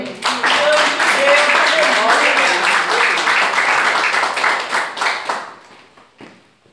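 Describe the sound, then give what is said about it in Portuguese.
A crowd claps together in a steady, rhythmic beat in praise of the Lord, loud and full, with some voices mixed in; the clapping thins out and fades over the last couple of seconds. “esta oportunidade, as palmas que louvam o Senhor.”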